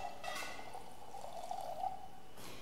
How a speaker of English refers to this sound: In the same way, when supper was over, he took a cup, he filled it with wine